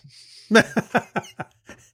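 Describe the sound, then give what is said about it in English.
A sudden coughing fit: a strong first cough followed by four or five quicker, weaker hacks that fade out over about a second, with no talking. “Is that is that your uh, your cough kick coming back in?”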